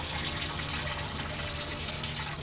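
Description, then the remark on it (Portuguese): Water pours steadily into a home's reservoir, filling it with the water to be used during the day, on the fourth trip of the day carrying water; a continuous splashing gush that stays loud throughout, with no voices present. “E ele tá fazendo essas viagens todas para encher o reservatório aqui da casa dele, ó. Colocando a água que vai ser usada durante o dia.”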